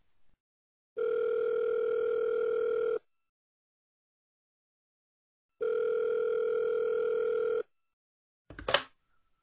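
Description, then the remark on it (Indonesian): A telephone dial tone sounds as someone places a call: two steady, buzzing two-second bursts separated by a pause, followed by a short, sharp crackle at the end as the line connects. No one speaks. “coba deh kita tanya-tanya aku coba telepon ya”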